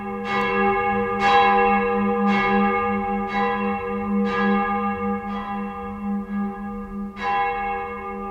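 Church bells ring out in a steady, measured sequence, each strike followed by a long shimmering hum that overlaps the next, fairly loud with no voices.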